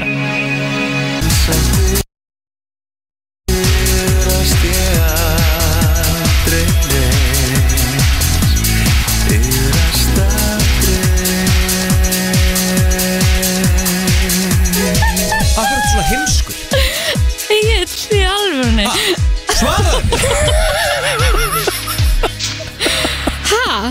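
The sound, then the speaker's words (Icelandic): A loud, busy pop song plays in a studio, opened on a computer, with a steady pounding beat and bright layered melody, cutting out briefly near the start before continuing at full volume. “Hva, hva, var hann að setja okkur annar lag aftur eða?”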